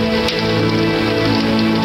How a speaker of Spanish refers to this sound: Mamá, corramos a través de la lluvia. Pero si lo hacemos, nos vamos a mojar, hija, contestó la mamá.